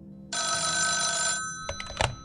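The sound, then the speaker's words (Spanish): A telephone bell rings once in a sustained bright metallic burst lasting about a second, followed by a few short clattering knocks as if the receiver is picked up. “Hola, ¿a quién tenemos en la línea?”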